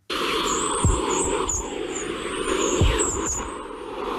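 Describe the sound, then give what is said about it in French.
A recording of the aurora borealis: eerie high whistling chirps and glides drift over a steady static hiss, broken by a couple of sharp crackling pops; continuous and moderately loud, with no voices. “Ça, c'est le son du aurore boréale.”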